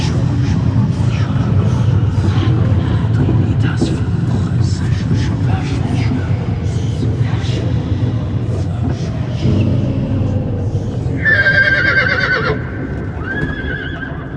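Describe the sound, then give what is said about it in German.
A coach drawn by two black horses rolls by an ancient cathedral in the early morning: a steady rumble of rolling wheels and hooves, then the horses shy with a loud, shrill whinny near the end, followed by a shorter neigh as the noise settles. “An der uralten Kathedrale des heiligen Simeon scheuen die beiden schwarzen Pferde.”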